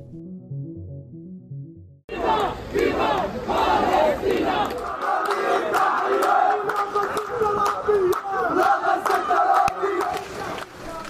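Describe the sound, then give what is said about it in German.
Hundreds of people celebrate in the streets of Neukölln, Berlin, with car convoys, in reaction to the Hamas attack, shouting and chanting loudly in unison: a dense, sustained roar of many voices with rhythmic calls rising above, following a couple of seconds of low, muffled tones. “Die Straßenszenen, die Sie da im Hintergrund hören, die stammen vom Wochenende aus Berlin.”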